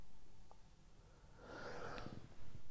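A single cough bursts out midway, a short, loud, breathy, rasping blast against a quiet background, with no talking around it.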